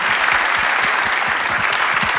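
An audience claps steadily, a dense wash of many hands with individual claps flickering through, sustained at a fairly loud, even level without voices.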